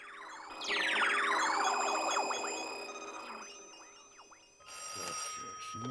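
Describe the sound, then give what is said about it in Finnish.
A telephone at the Kuusimetsä police station rings with loud, warbling electronic tones that sweep and chirp over several seconds, then resume after a brief dip, with no voices. “Kuusimetsän poliisiasema Karhunen puhelimessa”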